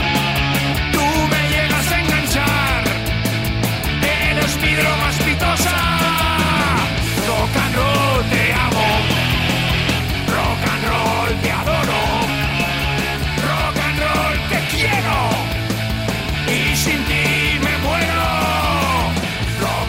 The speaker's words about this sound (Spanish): De fondo está sonando rock and roll de distorsión y es que me da hasta pena interrumpirlo porque menudo marcha que nos imprime siempre nuestro querido José Luis Capitán porque esta es su recomendación musical para este mes.